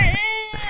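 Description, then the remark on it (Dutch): A single short, whiny meow with a wavering pitch, fairly loud, lasting under a second. “Oh, dat is een kat volgens mij.”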